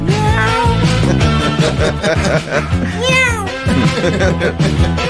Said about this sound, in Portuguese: Na boca a gente vai trazer um gato aqui, né? tem um gato ao vivo. Tem aqui. dois gatos ao vivo aqui. Faz a hora do miau.